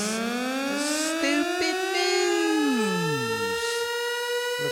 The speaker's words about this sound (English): How y'all like my tornado sound? That's how it sounds when them tornadoes come through Texas. Them alarms go off like that.